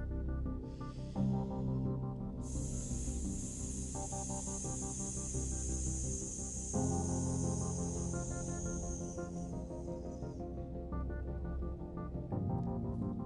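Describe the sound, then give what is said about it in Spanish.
A long, steady voiced hiss with a rattling, buzzing edge sustains for about eight seconds over continuous soft instrumental music, then cuts off while the music carries on. “silbido, como un cascabeleo.”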